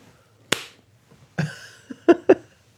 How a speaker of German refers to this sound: weil du ins Mikrofon geklatscht hast